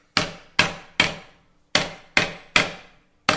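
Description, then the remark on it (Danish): Seven sharp small-hammer taps shaping a metal plate, each blow moving the metal slightly as the worker circles around the plate, each with a brief bright ring, falling in a steady rhythm: three strikes, a short pause, three more, then one last blow. “Hver lille slag flytter så metallet en lille smule, og så kører jeg en cirkel rundt”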